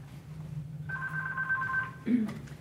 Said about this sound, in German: So, und jetzt geht das Telefon, jetzt gehe ich da mal schnell hin. Vielleicht will ja jemand Karten.